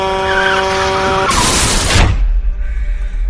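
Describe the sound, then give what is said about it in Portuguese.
A large truck's horn blares with steady tones as a driver runs a red light, then tires screech sharply in a harsh skid before a deep rumbling impact settles into low noise. “A buzina de um grande caminhão é ouvida e tudo é muito rápido.”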